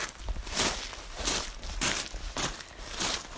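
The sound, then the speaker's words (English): Footsteps crunching over loose red and black shale at a steady walking pace, five or six gritty, bright steps with a slightly tinny edge, with no one talking. “I don't know, it just sounds a little bit more tinny than usual shale”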